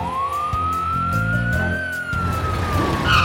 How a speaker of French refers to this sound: Oh oh On dirait une sirène